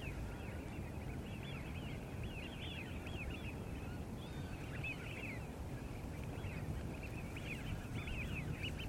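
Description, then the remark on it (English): A distant flock of wigeon, winter migrants from Iceland, Scandinavia and Russia, whistling continuously as they rise and fall among the grasses of the Broads wetland, many overlapping calls rising and falling over a steady low rumble of wind and open water. No one speaks. “and in the distance, a flock of widgeons who have migrated for the winter from Iceland, Scandinavia, and Russia rise and fall among the grasses.”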